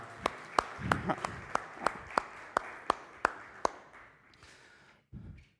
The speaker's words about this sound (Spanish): Un aplauso a Daniel que se aguanta todo acá.